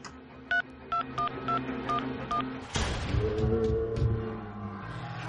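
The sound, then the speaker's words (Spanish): A phone number is dialed as a quick series of about seven short, evenly spaced beeping tones, followed by a brief burst of noise and a steady hum with a low ringing tone. “Voy a hacer una llamada un momentito”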